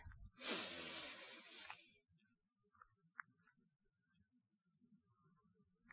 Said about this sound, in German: Und atme, atme mit mir durch die Nase ganz tief ein.